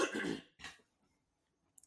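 A close, loud cough bursts out, followed a moment later by a shorter second cough or throat-clearing rasp, then near silence with a faint tick at the end.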